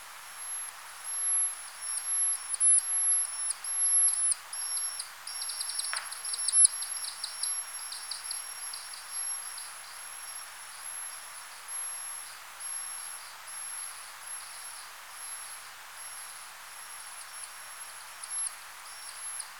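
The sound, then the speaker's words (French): Time-expanded lesser horseshoe bat echolocation calls, a tiny species 8 to 10 cm tall: a rapid series of high, steady-pitched tonal pulses over a constant hiss, with a brief, denser burst partway through and no voices. “donc là, effectivement, on entend un petit rhinolophe.”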